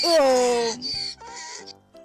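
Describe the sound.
A voice imitates a donkey's bray, a loud rising-falling "hee-haw" followed by a few shorter strained honks, clear with no other sounds.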